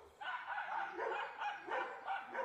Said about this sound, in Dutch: Uh, je moet dus wel tegen honden kunnen die blaffen. Want dat is hier dus ook dat komt je dus ook wel tegen hier.